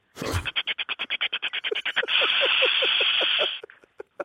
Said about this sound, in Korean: 자, 압력밥솥 밥 되는 소리 먼저 들어보겠습니다. 증기를 배출합니다.